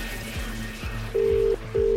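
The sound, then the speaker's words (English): A telephone rings twice in quick succession, each ring a loud, steady electronic tone about half a second long, over a busy, murmuring background. “Two rings.”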